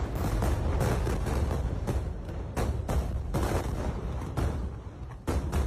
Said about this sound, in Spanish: No son fuegos artificiales, es el sonido de las bombas israelíes cayendo junto a los hospitales de Gaza donde decenas de miles de palestinos habían buscado refugio en las últimas semanas.